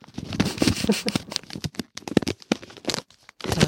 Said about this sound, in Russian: Сейчас я еще бумажкой пошуршу.